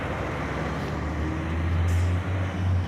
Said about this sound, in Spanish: Anda que no salen camiones de esta empresa con tolvas para arena.